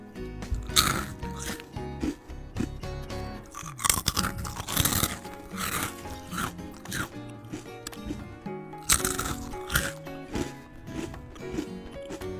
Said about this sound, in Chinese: 但是真正有名的那些吃播是只是吃，吃的又多又香。还有，为了强调吃的声音，他们是这样说话的，而且你们可以听到他们吃的声音，比如